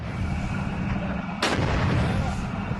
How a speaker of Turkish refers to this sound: Teröristlerin yoğun ateş altına alındığı noktalardan biri de Suriye'nin Eşme köyünde bulunan Süleyman Şah Türbesi'nin çevresi. Türbenin etrafında teröristlerin bulunduğu hedefler obüslerle vuruldu